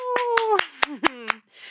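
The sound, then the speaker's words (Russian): Six sharp hand claps at a steady, fairly quick rhythm, with a sustained voiced whoop sliding downward in pitch underneath them, then a brief soft hiss. “Ну что, аплодисменты, давай.”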